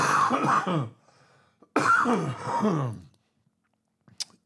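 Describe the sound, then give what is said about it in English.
Two rough, throaty bursts of coughing and throat clearing, fairly loud, separated by a short pause, then a faint click and quiet at the end. “Um, the cough always makes it worse.”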